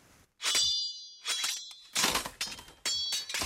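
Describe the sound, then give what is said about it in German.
Metallic fencing blades clash and scrape in a quick, irregular series of ringing clangs, loud, with brief pauses between the bursts and no voices. “So, das war so Fechten, oder? Am Anfang.”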